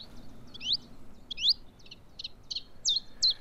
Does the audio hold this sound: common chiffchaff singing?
yes